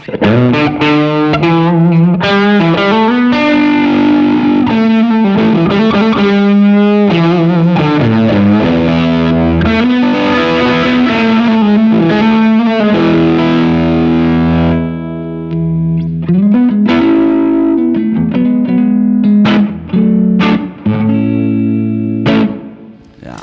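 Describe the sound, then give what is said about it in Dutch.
A loud electric guitar through a battery-powered Isle of Tone Haze 69, a silicon Fuzz Face/Tonebender-style fuzz pedal, plays thick, buzzing riffs and chords, with a sustained held note partway through before the playing picks back up. “Eh, silicon Fuzz Face Toonbender hmm. staal eh, pedaal.”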